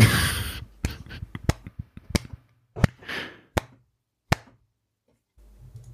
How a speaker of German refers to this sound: Willst du noch mal kurz klatschen?